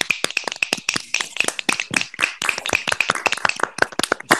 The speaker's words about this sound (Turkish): Alkış alalım.